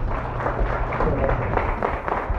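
A short burst of audience applause for a participant who has just shared, a steady wash of many hands clapping at moderate loudness, with a low hum underneath and no clear speech.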